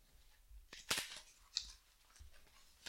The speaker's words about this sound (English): if you could shuffle the deck.